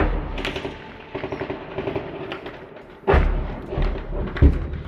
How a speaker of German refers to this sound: Als ich das hier zum ersten Mal anhöre, habe ich wirklich das Gefühl, dass direkt vor dem Fenster die Kämpfe toben.